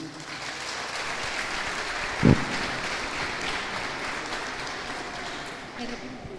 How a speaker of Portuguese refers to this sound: Se você recebe essa palavra, aplauda o nome de Jesus.